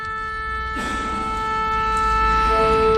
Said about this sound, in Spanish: Ahí está, eh, afinando el oboe en ese la, eh, un la que va luego a pasar el primer violín. Luego después ahí irán las, la sección de, cuerdas. Todos a ver afinando.